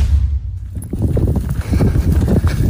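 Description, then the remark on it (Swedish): The hooves of Albin, the family's horse, clip-clop in a quick, steady rhythm on a hard surface as a person jogs with it, with a low rumble of wind or movement underneath and no talking. “Och eh, Under veckan här nu så var jag ute och eh, sprang med vår häst.”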